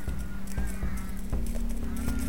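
Horses walk at an unhurried pace up to a crest, their hooves clip-clopping in a loose, uneven rhythm over a steady low background rumble, moderately loud.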